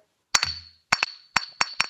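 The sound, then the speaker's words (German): Glasses clink together in a toast, a series of bright taps arriving in quick pairs, each leaving a short high ringing tone. No one speaks. “So, ich stoße mal, ich tu hier.”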